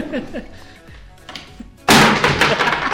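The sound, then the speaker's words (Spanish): Voices murmur briefly, then a sudden loud thud and clatter, like a body tumbling off a chair, bursts in and rumbles on noisily until the end; a sound effect of someone falling off a chair. “No, no, Te tienes que caer de la silla, güey.”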